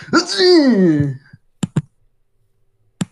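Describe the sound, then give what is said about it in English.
A voice imitates a droid's robotic, sneeze-like dying noise: a breathy burst that slides down in pitch and fades over about a second. A few sharp clicks follow in the quiet. “It's like, sounds like a guy kind of sneezing, honestly.”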